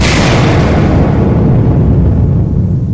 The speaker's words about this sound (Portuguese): mas o suplício do dono da casa é interrompido quando o canhão sônico entra em colapso de sobrecarga, explodindo na mão do impostor.